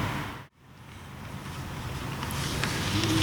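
Open-air outdoor ambience at a shrine, dominated by a steady, breathy rush of wind that swells gradually louder, with a brief dip near the start and no one speaking.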